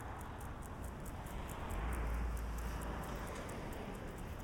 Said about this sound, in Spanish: Va a pasar un coche a nuestra izquierda.